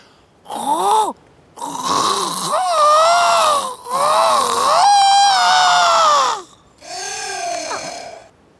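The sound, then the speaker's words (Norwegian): A person imitates a kiwi bird's gurgling call with a series of warbling, wavering vocal bursts, four separate stretches of loud, throaty trilling with brief pauses between them. “Men hvis det er en kiwi, mm. så klarer du sikkert å herme etter gurgleulelyden.”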